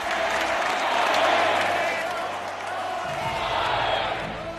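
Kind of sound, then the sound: crowd, ovation applause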